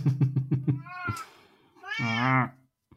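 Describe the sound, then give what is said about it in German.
A cat meows while climbing up a cat-proof insect net on a window: a quick run of short chirping calls, then a thin drawn-out meow, and after a pause a louder, longer meow. No one talks. “ja, die weiß genau, die, die klettert gerade an, wir haben so ein äh, katzenfestes Insektennetz am Fenster, weil es ja nicht raus soll.”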